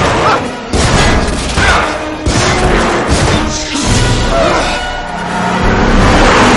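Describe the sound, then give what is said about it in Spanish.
A few loud gunshots burst out at irregular intervals as O'Connell fires at the roof of a double-decker bus while mummies climb aboard, over a dense wall of crashing, rumbling noise that stays loud throughout, with a low engine-like roar underneath. “O el dispara al techo.”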